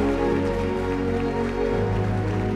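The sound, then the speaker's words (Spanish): An audience claps steadily and loudly for a few seconds in applause to the Lord, the dense patter of many hands blending with sustained keyboard chords ringing underneath; no one speaks. “Dele más fuerte el aplauso al Señor.”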